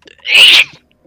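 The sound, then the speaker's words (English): A single loud sneeze, a sharp breathy burst lasting about half a second, with brief quiet before and after and no talking. “Bless you.”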